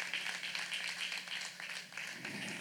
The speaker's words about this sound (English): and give them a great big hand. It's amazing.